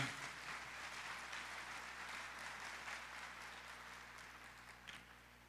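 An audience claps steadily for a 23-year-old young man called up to the front, a dense wash of applause that stays fairly even throughout and then gradually thins out near the end, with no one speaking over it.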